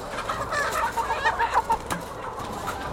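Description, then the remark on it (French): Many hens, some 4,200 just unloaded into a poultry building, cluck at once in a dense, continuous chatter, with overlapping calls rising and falling against a steady background hum. “Là, on a, on a euh, déchargé 4200 poules, juste 200 euh, coques.”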